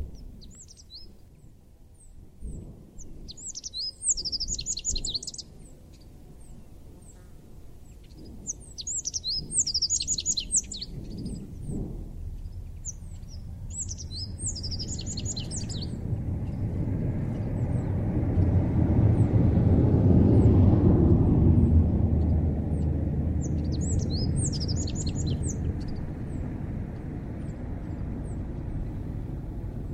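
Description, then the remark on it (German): A rock bunting sings short, high, buzzy phrases repeated every few seconds, while a low rumble of a passing aircraft swells in the background and fades. “Diesen Gesang hören wir uns nun an.”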